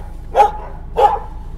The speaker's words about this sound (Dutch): Ja, allemaal honden hier.